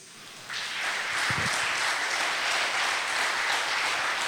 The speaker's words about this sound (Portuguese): Vamos aplaudir o Senhor por isso?